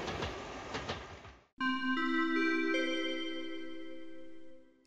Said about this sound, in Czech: Mezistátní vlak Eurocity ze směru Praha hlavní nádraží, který dále pokračuje ve směru Wien Hauptbahnhof, přijíždí ke druhému nástupišti.